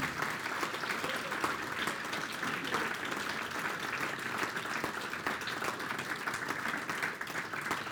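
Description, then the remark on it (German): Steady applause from an audience for a group of young men being introduced, filling the whole eight seconds, a dense, even wash of many hands clapping at constant loudness without pauses or a clear voice on top. “So, jetzt nochmal dicken Applaus.”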